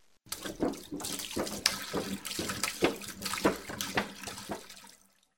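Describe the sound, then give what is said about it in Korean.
Broth is poured over meat and unleavened bread in a steady stream for about five seconds, splashing and gurgling in uneven pulses, fairly loud, with no voices. “고기와 무교병을 가져다가 이바 위에 놓고 국을 부으라.”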